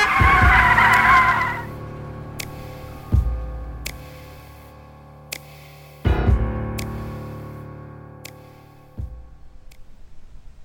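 A car on a roadside street brakes hard and stops without hitting a person pushed into the road, with a loud, harsh tire skid that screeches for over a second, then settles into a steady engine idle punctuated by a few sharp knocks and ticks.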